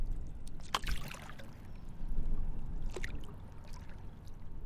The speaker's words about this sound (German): Ich setze meinen Kajak am Algiers Point gegenüber vom French Quarter zurück ins Wasser.